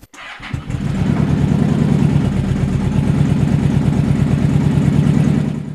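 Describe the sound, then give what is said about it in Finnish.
A small Suzuki Intruder motorcycle engine, last run in autumn, cranks and catches, then settles into a steady, throbbing idle with a low, rapid pulse that runs on loudly without any talking. “Se on Suzukin Truderi, se pikkunen.”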